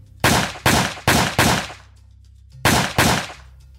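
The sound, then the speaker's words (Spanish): Six loud, sharp gunshots ring out in Brazil, the shots that killed pastor Anderson do Carmo, husband of federal deputy Flor de Lis dos Santos: four fired in a quick, steady series, a brief pause, then two more in rapid succession, with no one speaking. “De repente, disparos.”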